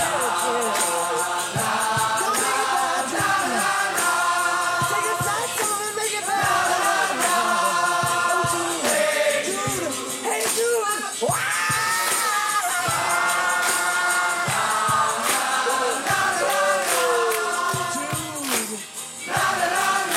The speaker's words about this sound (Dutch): ik zei net eh, dat uh, spoor 54 over waren, maar we hadden ook nog spoor 8. En daar zit dus dat koor op en dat, dat geklap. Die hebben we ook even.